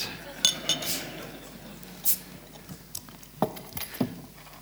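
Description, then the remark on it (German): A bottle of Hübeli beer is popped open with a bottle opener, followed by several light, scattered glass clinks and clatters spread over a few seconds against a quiet background. “Du müsst hier den Flaschenöffner nehmen, nachher nehmt das Fläschchen und tut das so auf.”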